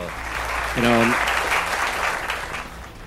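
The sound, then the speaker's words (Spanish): A steady burst of loud applause, many hands clapping in a dense, continuous wash for about three seconds, with a brief voice calling out over it near the start. “Un fuerte pues, aplauso.”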